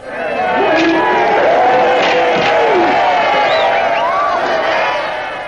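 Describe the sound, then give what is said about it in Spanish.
A dense crowd roars and shouts continuously from the stands above a bullring arena, a loud steady wall of many voices with rising whoops and cries breaking out over the din throughout. “Arriba la multitud ruge sobre las gradas.”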